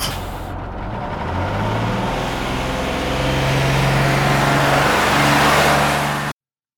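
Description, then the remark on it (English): A large bus engine turns over and revs, its low rumble climbing in pitch and growing louder over several seconds before cutting off abruptly. No voices, just the heavy vehicle noise. “it's time to get this short bus started.”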